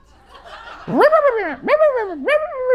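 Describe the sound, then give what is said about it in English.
A person imitates a small dog such as a Maltese or Shih Tzu yapping: three loud, high, whiny vocal yips in quick succession, each swooping up then sliding down in pitch. “Anybody ever Maltese or a Shih Tzu that kind of gets loud like that?”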